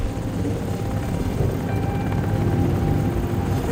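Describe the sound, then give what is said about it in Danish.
A steady, loud helicopter drone fills the scene, its low rotor thrum continuous, with a faint whine above it and no voices: constant noise of helicopters coming and going at a base camp fenced with large sand-filled wire-mesh barriers. “Lydkulissen er jo konstant larm fra helikopter, der kommer og, og går.”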